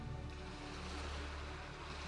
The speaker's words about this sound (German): Du hörst das Rauschen der Wellen und weit entfernt ein paar Möwen.